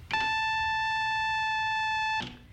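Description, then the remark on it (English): A single steady synthesizer tone with a sawtooth wave, rich, reedy, bright and buzzy with many even overtones, resembling sounds of home electronic organs, held at one pitch for about two seconds before cutting off abruptly. “A little bit more complicated wave is called sawtooth, and it's called sawtooth because on an oscilloscope, oscilloscope screen it looks just like a sawtooth”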